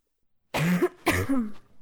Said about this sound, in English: okay, I promised that I coughed away from my microphone.